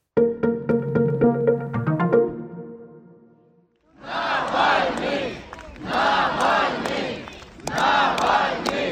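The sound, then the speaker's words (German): Thousands of people in Moscow at the funeral of Alexei Navalny chant his name in loud, rhythmic bursts while clapping and holding up flowers, the shouts rising and falling in repeated waves, after a few seconds of a short tonal musical jingle. “Nawalny rufen hier tausende Menschen in Moskau. Dazu klatschen sie und strecken Blumen in die Höhe.”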